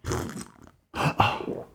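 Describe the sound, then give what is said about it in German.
Someone slurps coffee from a cup, two noisy, wet sips separated by a short pause, the second longer and louder, with no talking. “Hättest du nicht gesagt, ich muss dabei schlürfen, damit man es checkt?”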